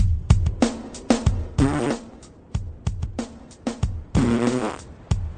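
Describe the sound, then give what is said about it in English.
A man who has fallen on a street in Philadelphia farts: a rapid string of loud fart noises, many short sputtering pops broken up by a few longer, buzzing blasts, with no talking in between. “Dude, let me laugh at my friend, catch the fart on video, because he fucking fell and farted on the streets of Philadelphia, bro.”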